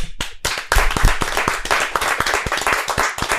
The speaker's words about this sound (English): Clap it up.